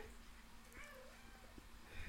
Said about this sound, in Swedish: min efterblivna katt här.